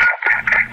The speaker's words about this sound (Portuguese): que barulho é esse que tá aí no fundo, cara? Um pote. Ah, você tinha sabido uma marmita às 10 e pouco da noite? Não, eu estou comendo batata palha.